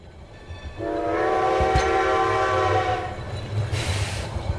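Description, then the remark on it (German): A train sounds a long, steady horn for about two and a half seconds over a continuous low rumble of the moving train, with a single sharp clank partway through. “brachten die neuen Helden mit ihren Jetpacks zum Zug.”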